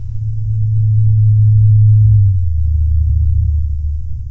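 A blue whale call, its deep bass raised four octaves by technical means so that humans can hear it: a loud, steady low hum that drops to a deeper pitch about halfway through and continues droning to the end, with no other sounds.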